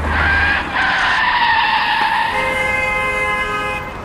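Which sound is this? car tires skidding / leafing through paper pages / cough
car tires skidding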